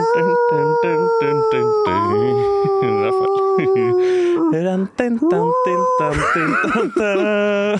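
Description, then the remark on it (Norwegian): A person imitates a wolf howl, loud, drawn-out wavering cries rising and falling, preceded by shorter rhythmic vocal pulses, with another voice joining in near the end. “Hvis du nyller den, så uler jeg som en ulv.”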